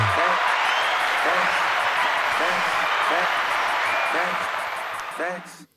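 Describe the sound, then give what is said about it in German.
A steady burst of crowd applause for a speech, dense and loud, holds for several seconds with faint cheering voices mixed in before it cuts off abruptly. “Der Applaus war jetzt für deine schöne Rede, Alter.”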